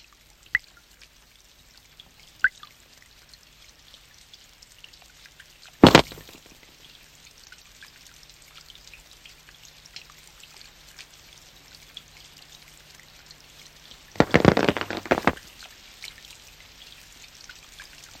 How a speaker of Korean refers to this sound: 자, 그런가 하면 저는 우산 하면 또 이 친구를 떠올리지 않을 수가 없습니다. 우산 위에 떨어지는 그 빗방울 소리를 참 좋아하던 친구가 있었죠. 바로 이 영화입니다.